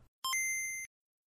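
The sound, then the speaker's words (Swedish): A short two-note electronic chime rings out once, a lower tone stepping up to a brighter, higher one with a slight shimmer, lasting just over half a second and then stopping cleanly; used in a live recording to replace audience questions that were cut out. “Vilket innebär att vi under, liksom under gång fick en del frågor och alla de frågorna har klippt bort och ersatt med ett pling som låter så här.”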